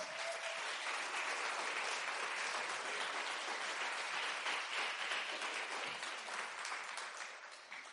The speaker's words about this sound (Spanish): Dar un aplauso a Jesús.